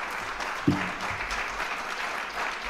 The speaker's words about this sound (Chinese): 我们很高兴的跟这个二五零六突击旅的这二十个老兵，还有他们的家人一起聚在这里，请你们起立接受鼓掌。